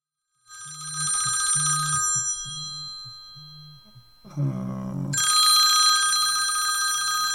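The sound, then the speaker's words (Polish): A telephone rings loudly, a bright, buzzing bell-like tone sounding twice with a short pause between, the second ring continuing to the end. “Przepraszam bardzo, ale to nie o tej porze się do mnie dzwoni.”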